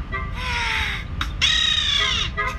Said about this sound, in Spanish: Al tener los dientes tan grandes, no pudo inflar el globo. Solo le salía un silbido.